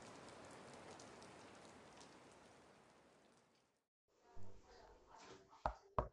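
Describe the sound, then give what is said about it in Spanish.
Steady, dense rain hisses for a few seconds at an even level, then cuts off abruptly; a voice and a couple of sharp taps follow. “Bien, mientras, mientras iban caminando bajo la lluvia.”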